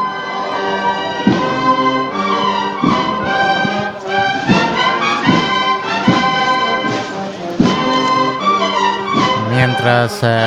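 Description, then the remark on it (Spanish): The bugle and drum band of the Santísimo Cristo de la Expiración plays a slow procession march accompanying the Jesús Cautivo float along calle Sagrado Corazón de Jesús, brassy bugle melodies held over steady, regular drum beats, loud and continuous throughout with no talking. “Escuchamos a la banda de corneta y tambores del Santísimo Cristo de la Expiración que acompaña a Jesús cautivo aún transcurriendo por la calle Sagrado Corazón de Jesús.”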